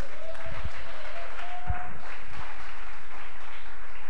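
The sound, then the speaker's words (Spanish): A church audience claps their hands as an offering of applause to the Lord during a sermon, a dense, steady burst, a crowd of overlapping claps holding at a fairly even loudness throughout, with a few faint voices mixed in. “¿Cuántos dan ofrenda de palmas al Señor?”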